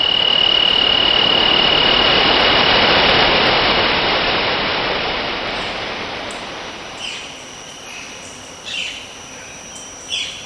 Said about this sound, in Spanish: El silencio que trae consigo la noche permite escuchar el rugido de Tamul, un salto de agua con 100 metros de alto.